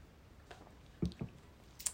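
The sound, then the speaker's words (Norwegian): A quiet sip of water: a few soft wet mouth sounds and small clicks, like sipping and swallowing, spread over a couple of seconds in near silence. “Måtte bare ta meg en slurk her.”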